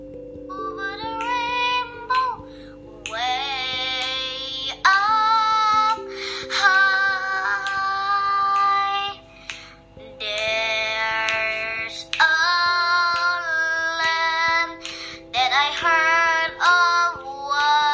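In a 2019 recording, a child of elementary-school age sings a slow, melodic song in long sustained phrases with short pauses between lines, accompanied by steady low held tones underneath; no one speaks.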